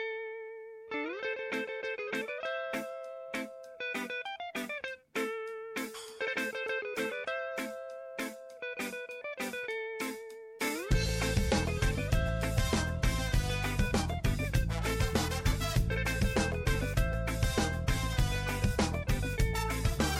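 A band's recorded song plays: a bright, repeating melodic riff over sparse backing, then about halfway through the full band kicks in, loud and dense with driving distorted guitars.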